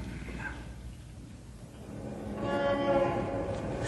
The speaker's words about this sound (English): Shut that window. Here we are in a skyscraper, 40 stories above the street, and yet that traffic noise would drive you crazy. Shut the window, I say.